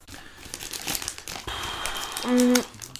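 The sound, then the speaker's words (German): Irregular crinkling of a plastic wrapper lasting a few seconds as trash is put into a bin, with a brief low tone near the end, and no talking over it. “Du, du kannst auch den Müll, wenn er schon hinter mir steht, heißt das, du kannst einfach den Arm ausstrecken und den Müll selber reinmachen.”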